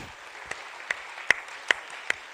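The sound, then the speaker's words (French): An audience applauds steadily as a guest is introduced, a dense wash of clapping with a few sharper claps popping out at regular intervals. No one speaks over it. “sous applaudissements.”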